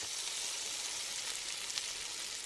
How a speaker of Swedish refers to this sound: Det här är alltså kött som steks. Det är inte lite mysigt? Och lyssna på bara.